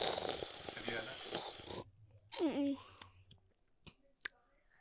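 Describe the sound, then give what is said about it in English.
Someone sips Coke Classic from a can: a rushing, fizzy slurp, a short gulping swallow, then a few faint clicks and quiet handling noises. “She felt the people needed to hear her I mean, sipping on the can rather than actually answering your well, question.”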